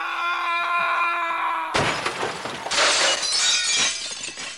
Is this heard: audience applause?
no